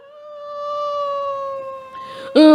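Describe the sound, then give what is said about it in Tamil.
A human voice imitates a wolf howling in pain as rats climb on it and bite its neck and leg: one long, steady, wailing tone held for about two seconds, then a sudden louder, sharper cry at the end. “மற்ற எலியெல்லாம் good good good good குட்டுன்னு ஓடி வந்து ஓனாய் மேலே ஏறி ஒன்று கழுத்தை கடிக்குதான் ஒன்று காலை கடிக்குதான் ஓனாய் வந்து வழியில் இப்படி சத்தம் போடுதான்”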